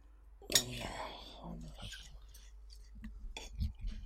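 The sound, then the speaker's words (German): A crisp bite near the start followed by wet chewing and mouth sounds as someone eats fried egg with fries, with soft whispery breaths and faint clinks of cutlery or dishes in the background. “Reinbeißen ist geil.”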